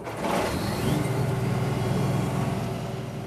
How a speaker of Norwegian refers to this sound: Egil Hoen fyrer i gang den store grønne skurtreskeren.